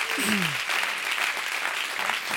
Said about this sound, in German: und möchte euch mit einem riesen Applaus verabschieden von dieser Bühne.